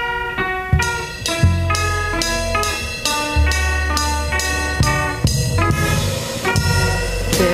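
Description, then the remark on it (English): A small band of three not very musical people plays loud, honking, horn-like notes over a heavy low bass, with ragged chord changes landing roughly every second. The playing sounds clumsy and unpolished, and no one speaks. “Imagine taking three nice but not very musical people, giving them some instruments, not letting them hear music ever in their lives, and seeing what they come up with.”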